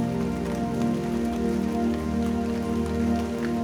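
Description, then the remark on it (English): Steady rain falling and pattering on a surface, a constant, even wash of drops with no voices, holding at the same level throughout. “Listen the sound of the rain.”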